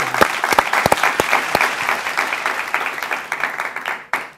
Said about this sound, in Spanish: Así es. Un aplauso a eso, un aplauso a eso.